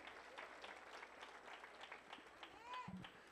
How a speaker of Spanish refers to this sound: ¿Podemos dar un aplauso para …?